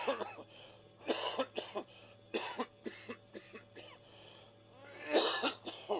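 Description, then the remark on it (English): A man coughs repeatedly in a series of short, harsh bursts, with a few deeper hacking coughs near the end, over a low steady hum. “I heard him cough. Did you hear that cough?”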